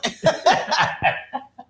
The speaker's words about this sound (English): Just cough it out, cough it all out.